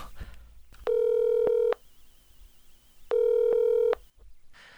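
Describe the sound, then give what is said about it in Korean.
Telephone line tones as a radio broadcast places a call to another person: two long, steady electronic beeps of the same pitch, each lasting under a second and separated by a couple of seconds of quiet, with no one speaking. “아, 또한 분하고 통화를 해보도록 하죠.”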